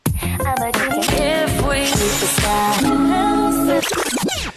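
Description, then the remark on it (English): A quick mashup of pop song snippets, loud and dense, with abrupt cuts every second or so as one vocal-and-band fragment jumps to the next. “Do you recognize any of those songs?”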